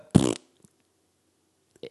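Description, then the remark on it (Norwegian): A voice makes one short, loud, buzzy fart imitation, followed by near silence and a faint brief sound at the very end. “Hvis jeg står på bakeren så, og må fise, så gjør Gjør du ikke det, da?”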